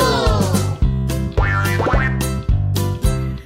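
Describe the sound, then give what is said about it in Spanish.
A voice sings out a drawn-out, gliding cat-like meow in a Spanish children's song about a rooster, over a bouncy, steady musical backing with regular bass beats. “¡Miau!”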